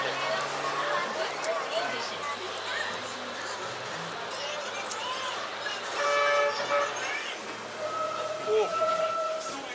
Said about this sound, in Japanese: お俺こんな荒っぽいバス乗ったの初めてや ほんまにバスって結構すんねんな、はい、これなんかまだ職人芸出てますねバスが。